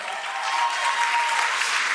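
An audience claps steadily, a dense, even wash of applause filling the full two seconds at a fairly loud level, with no pauses or individual claps standing out.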